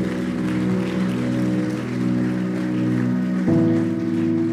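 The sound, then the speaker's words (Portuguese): A crowd claps steadily in a dense, rain-like wash of applause, with no voices, while sustained keyboard or organ chords hold underneath and shift to a new chord near the end. “Se for para aplaudir, bata a palma aí.”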